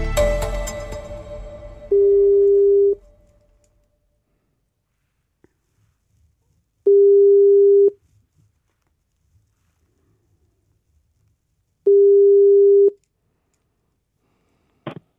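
A telephone ringback tone from an outgoing phone-a-friend call: three steady, mid-pitched one-second beeps spaced about five seconds apart, with quiet gaps between them, after a brief burst of noise at the start.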